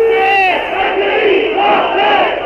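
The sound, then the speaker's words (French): A crowd of demonstrators shouting together in a loud, continuous roar, with overlapping voices rising and falling in pitch and no single clear speaker, sustained throughout, as the government's secretary general, General de Chaussin, passes between their ranks. “le secrétaire général du gouvernement, général de Chaussin, passe maintenant entre les rangs des manifestants”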